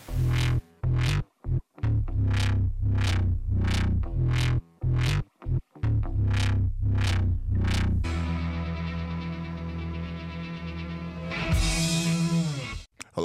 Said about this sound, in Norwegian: Jeg tenker vi kjører en sang, og så hører vi mer fra dere etterpå. Her kommer en remix av … med ….